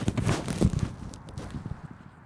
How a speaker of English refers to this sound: I'm going to put my gloves on because my hands are going to be out. So please ignore the bag rustling sound.